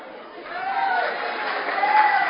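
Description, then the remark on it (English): An audience claps steadily for a couple of seconds, a dense wash of many hands with a faint murmur of voices and brief cheers mixed in. “Hey, so you've clapped and your wife is sitting beside you and look at why are you clapping?”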